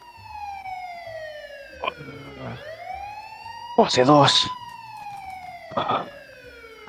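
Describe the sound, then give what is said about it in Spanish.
An emergency vehicle siren wails steadily, its tone sweeping down and slowly climbing again, fairly loud. People talk in short bursts over it, with one louder exclamation partway through. “esa sirena que suena?”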